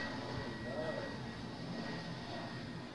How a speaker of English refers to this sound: Plane. Oh, there's a plane